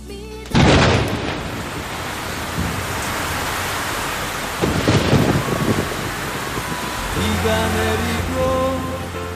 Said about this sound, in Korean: 그렇게 격리부장 태숙이가 떠난 뒤 갑자기 비가 쏟아졌습니다.